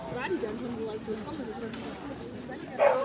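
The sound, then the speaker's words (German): Glasses clink together in a toast at a regulars' table gathering, a short bright knock near the end that rises over steady background chatter and murmuring voices. “An dieser Stelle müssen wir mal ganz kurz anstoßen.”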